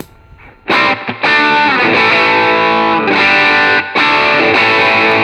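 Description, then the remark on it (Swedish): Thick, heavily distorted electric guitar chords ring out loud and sustained, fuzz layered with overdrive, with a couple of brief gaps between strums and no talking. “Och så sätter jag på overdrive.”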